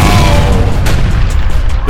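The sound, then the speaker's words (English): Loud pyrotechnics explode in a doorway as a fighter enters an arena, a deep, rolling low boom that fills nearly two seconds, with a few sharp crackling bursts flickering through its tail. “doorway exploded as pyrotechnics helped bring Kevin Chow out into the arena to the crowd's acclaim.”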